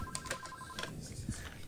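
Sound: telephone ringing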